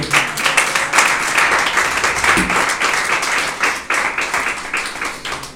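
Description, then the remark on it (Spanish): An audience claps hands together as an offering of praise to the Lord, in a steady, dense burst of applause that fills the whole clip at a loud, even level, with a faint voice briefly audible underneath. “De ofrenda de palmas al Señor con todo su corazón.”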